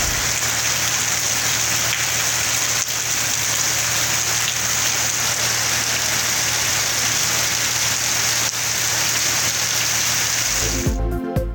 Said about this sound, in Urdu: بادل آئے بجلی کڑکی بارش ہو گئی پنجاب اور خیبر پختونخوا کے مختلف علاقوں میں می برسا تو گرمی نو دو گیارہ ہو گئی موسم خوشگوار اور شہری خوش ہو گئے